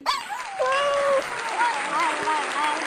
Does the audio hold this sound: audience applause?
yes